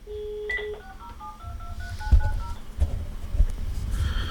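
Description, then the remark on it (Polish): A telephone handset and its loudspeaker ring with a quick run of short electronic beeps stepping between different pitches, followed by low rumbling handling noise and a few clicks. No one speaks. “Y, I głośnik nam zadzwonił, i słuchawka.”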